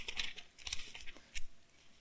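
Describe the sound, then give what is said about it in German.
Thin Bible pages rustle and flip as they are turned to Mark chapter 5, a quick series of soft crinkling bursts, fairly quiet, with one louder flutter near the end and no one talking. “Lasst uns zum Markus 5 blättern.”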